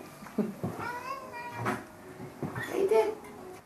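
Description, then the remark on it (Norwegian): A cat meows twice in a barrack that houses about ten black, white, orange and patched cats waiting to be adopted. Each call is drawn out and wavering in pitch, the second louder and more insistent, with faint background noise in between. “Her bor det rundt ti pelskledde skapninger i både svart, hvit, oransje og spraglete kledning, som venter på å bli adoptert.”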